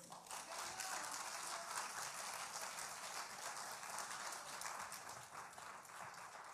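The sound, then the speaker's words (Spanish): A large crowd applauds steadily and loudly, a dense wash of many hands clapping at once for several seconds, with a few scattered voices faintly mixed in. “Denle aplauso fuerte al que vive.”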